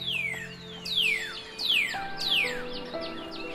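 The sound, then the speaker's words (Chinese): Little birds in a forest: four bright, descending bird whistles repeat at a steady pace, each a clear sweeping chirp from high to lower pitch, with faint extra tweets around them and no talking. “当他们抵达森林，哇，有好多可爱的小动物都围了过来。你看，松鼠，哎，大象，还有小鸟们。”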